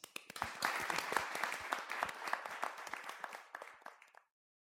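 An audience applauds steadily after question time at a talk event, many hands clapping in a dense, crackling burst that holds for about four seconds, then tapers off quickly into silence.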